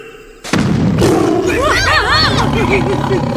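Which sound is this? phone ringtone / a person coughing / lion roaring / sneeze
lion roaring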